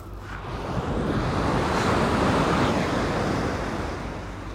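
Ocean waves roll and wash continuously in a broad, steady roar of surf, swelling slightly in the middle, with wind buffeting the microphone underneath. No one speaks.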